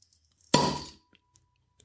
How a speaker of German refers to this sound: Ja, das klassische, bekannte Flens-Geräusch. Ich bin beeindruckt. Der ist richtig gut, der Plop.